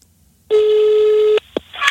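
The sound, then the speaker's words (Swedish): A single steady ringback tone of an outgoing phone call to a mother sounds for just under a second, loud and clear, followed by a brief click and the start of a voice on the line. “Ja, Här, nu ringer vi.”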